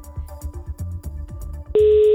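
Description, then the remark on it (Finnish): A rhythmic, thumping backing beat plays, then a loud, steady telephone ringing tone cuts in near the end and holds as a call is placed to the day's contest participant. “Ja nyt lähdetään katsomaan, että vastaako tämän päivän kilpailija meille puhelimeen tosta lähtien.”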